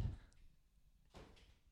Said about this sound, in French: Tu fermes bien la porte